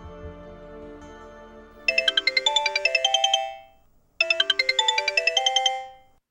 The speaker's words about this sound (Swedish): Men en dag ringde telefonen. Det var samtalet jag fruktat.